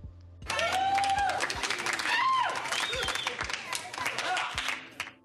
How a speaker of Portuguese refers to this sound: Se eu pudesse, eu deixava esse efeito dos aplausos aqui eternamente, porque tanto a Bela Rosa quanto o Sérgio Vaz merecem todos os aplausos do mundo.